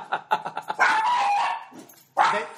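A dog lets out a quick run of five or six sharp yips, then a drawn-out, high whining howl, and after a short pause a final loud bark, with no talking.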